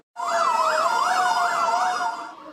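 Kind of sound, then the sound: vehicle, emergency vehicle siren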